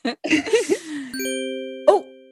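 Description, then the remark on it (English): A news alert chime rings out, a clear, sustained two-tone electronic ding that hangs for about a second, following a burst of laughing voices, with a brief vocal sound over its tail. “Is that another news alert?”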